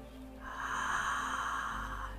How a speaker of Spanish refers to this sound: Hoy vamos a comenzar respirando profundo a través de la boca. Respiración Maya Solar.